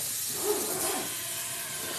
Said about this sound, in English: I really thought I was okay with the dishes being done while I do this. But I forgot. My husband uses the sprayer. I don't use the sprayer because I don't like how loud it is.